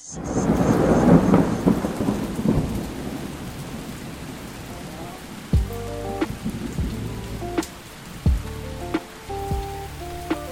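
Steady rain hisses and patters with low thunder rumbling early on, followed by scattered sharp drips and splashes against a surface, with no voices.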